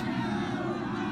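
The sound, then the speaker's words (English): A large crowd of spectators in bleachers murmurs and stirs in a dense, steady wash of overlapping voices, with no single speaker standing out. It's a short, continuous burst at a fairly even level. “The crowd shifts in the bleachers.”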